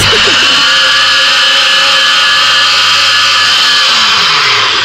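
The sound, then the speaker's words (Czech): A blender runs for about five seconds, a loud, steady mechanical whir with a high whine and a humming motor tone underneath, at an even pitch from start to finish. “Počkej, bacha dělá to rachot.”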